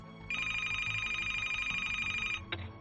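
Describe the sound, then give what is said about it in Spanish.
A telephone rings once more in one sustained electronic trill lasting about two seconds, loud, then cuts off abruptly with a brief click. No voices accompany it. “Los padres de Dorothy estaban destrozados y el teléfono sonó una vez más.”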